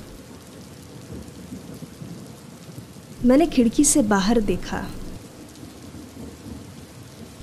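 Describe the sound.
A heavy downpour hisses steadily from start to finish, with a low rumble of thunder beneath it. A man speaks briefly over the rain partway through.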